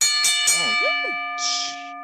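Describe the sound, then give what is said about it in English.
A bell is struck a few times in quick succession and then rings on with a bright, sustained tone. Swooping whistle-like sounds and a brief burst of hiss play over the ringing. “ring the bell, bro.”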